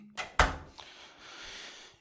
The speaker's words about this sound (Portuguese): Desculpem, tem que abrir a porta ao Nero, que ele tá, está-se a passar dos cornos.